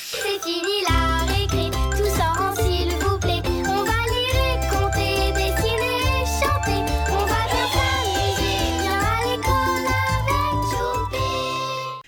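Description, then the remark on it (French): The opening theme of the children's cartoon Choupi à l'école plays loudly and continuously, bright and bouncy, with a steady bass line, cheerful melodic hooks and sparkling high tones, ending abruptly. “On vient d'écouter Choupi à l'école, le générique.”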